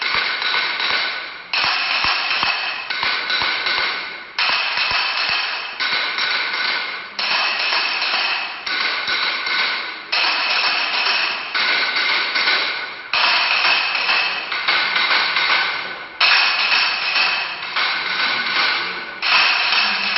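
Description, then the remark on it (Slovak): A wooden crank clapper (klepáč) of hard wood such as oak, with a base board and small wooden pieces lifted by a crank on the side, knocks in a fast, dense clatter, cranked in steady bursts roughly every second and a half for about twenty seconds, loud and dry, with no voices. “akého druha dreva sa vyrábali klepáče?”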